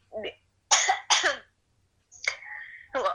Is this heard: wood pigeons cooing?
no